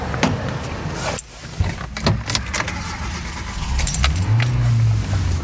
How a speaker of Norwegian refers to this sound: Vi setter oss i bilen, Ja, vi gjør det.